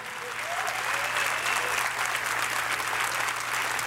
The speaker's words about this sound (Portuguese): Dá uma grande salva de palmas aí ao Senhor.